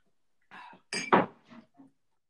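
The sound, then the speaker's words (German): Glasses clink together in a toast, a short cluster of bright taps and knocks with one louder chime in the middle, fading into quiet with no voices. “Prost.”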